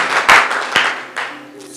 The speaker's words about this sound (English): Clap your hands together for Jesus and you may be seated.